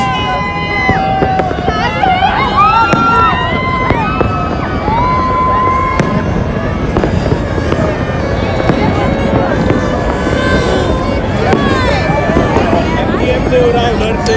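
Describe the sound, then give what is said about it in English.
A large outdoor crowd celebrating New Year 2020 murmurs continuously, many overlapping voices forming a loud, dense babble, with occasional sharp bangs of fireworks going off through the steady hubbub. “Big crowd right in front of me.”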